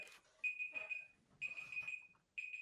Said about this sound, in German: Achtung, ich soll was machen, Wecker.